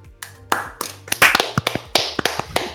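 A short burst of applause from a few people, sharp uneven hand claps landing at an irregular, quick pace for a few seconds, with no voices over it.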